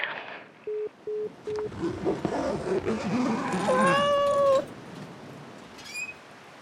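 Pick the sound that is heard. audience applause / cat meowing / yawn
cat meowing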